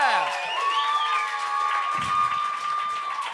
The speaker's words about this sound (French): C'est déjà la fin du spectacle. Est-ce qu'on pourrait juste applaudir notre juge invité, s'il vous plaît, ici